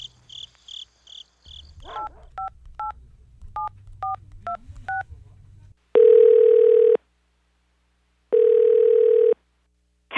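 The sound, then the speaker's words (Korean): A quick run of electronic keypad beeps as a number is dialed, about ten short dual tones in uneven rhythm, followed by two long steady ringback tones with a pause between them. “최소방한테 연락이라도 해 전화하고.”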